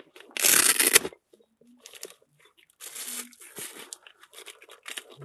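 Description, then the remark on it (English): Crisp crinkling of a chocolate wrapper: one loud burst of rustling, then several softer, uneven bouts of crumpling and crackling with brief pauses between them. “chocolate paper.”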